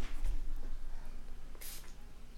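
A single short puff of an asthma inhaler, a brief sharp hiss of spray, standing out against a low steady background hum.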